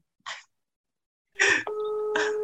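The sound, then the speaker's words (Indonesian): A phone ringback tone starts partway through, a steady electronic hum holding to the end, preceded by a couple of short breathy hiss bursts. No one speaks. “Ih, udah ada nada sambungnya.”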